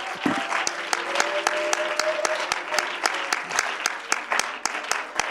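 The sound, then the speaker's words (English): An audience claps hands in praise to the Lord at the start of a church service, a dense, sustained burst of applause, many sharp claps blending into a steady roar, with a faint tonal hum beneath. “Let's give the Lord a hand clap of praise as we, amen, enter into this service today.”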